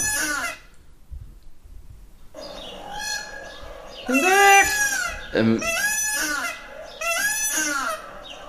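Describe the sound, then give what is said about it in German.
Loud, harsh peacock calls ring out in several repeated bursts, each a strained, wailing cry with rising and falling pitch, separated by short pauses; a person briefly murmurs at the start. “DER PFAU”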